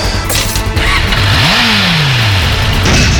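A motorcycle engine roars to life and revs sharply once, its pitch climbing then sliding back down, loud amid dense, noisy background clatter.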